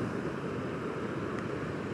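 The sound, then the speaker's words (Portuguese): A steady, continuous wash of ocean surf fills the scene, a broad rumbling roar with no distinct wave breaks, heard alone without any voices. “Observe o mar e então olhe para o céu.”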